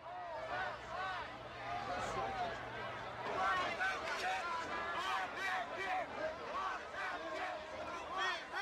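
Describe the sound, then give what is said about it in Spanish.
A dense, layered sound collage plays at steady volume: overlapping voices, crowd-like babble and swirling tonal fragments blend into a continuous, chaotic wash with no clear rhythm. “So el disco entero es eso, ….”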